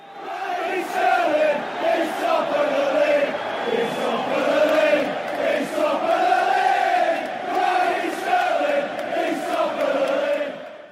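football fans chanting

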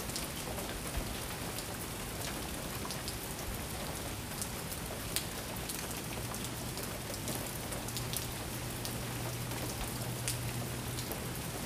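rain falling

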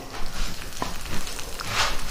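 food sizzling

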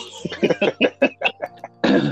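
cough

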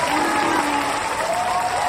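audience applause

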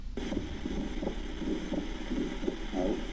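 split second heart sound

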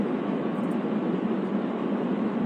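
diesel car engine running

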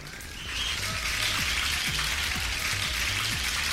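audience applause

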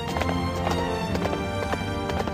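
horse hooves clip-clopping

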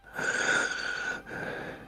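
labored wheezing breathing

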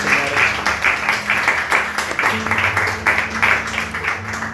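audience applause

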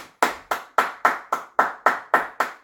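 clapping

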